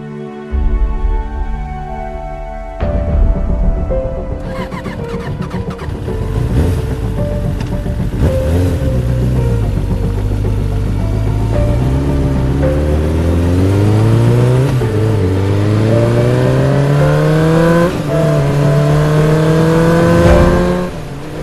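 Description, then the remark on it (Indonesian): Rama's motorcycle engine revs hard and climbs through rising pitch sweeps, roaring loudly and continuously at high speed through rain, with a broad rushing noise behind it, no voices present. “Dengan kecepatan tinggi, sepeda motor Rama membelah hujan dan mengabaikan sambaran petir yang bersahutan.”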